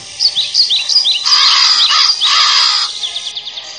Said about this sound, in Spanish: cuervos?